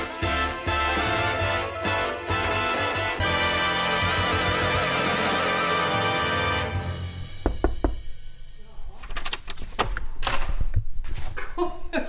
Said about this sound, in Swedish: Knackar du? Nej.